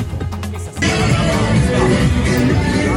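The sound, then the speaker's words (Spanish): Loud, dense music with a noisy crowd mixed in, kicking in abruptly after a brief quieter moment and then continuing steadily, heard outdoors among many people leaving a football stadium just after Argentina beat Croatia 3-0 to reach the World Cup final. “Bueno, aquí estamos saliendo del estadio, escucharán en el fondo la música.”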